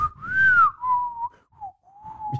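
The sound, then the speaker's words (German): Someone whistles a short jingle-like melody: a rising, sliding first note followed by a few shorter, lower notes, slightly breathy and a little unsteady, with no talking. “Genau, so ein Pfeifen.”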